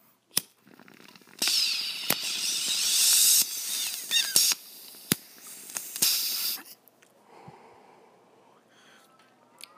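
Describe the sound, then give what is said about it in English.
Someone takes a long toke of cannabis smoke from a bong: a steady, breathy hiss lasting about five seconds, punctuated by sharp clicks, then fading into quiet with faint low rustling. “Now that was a fun toke.”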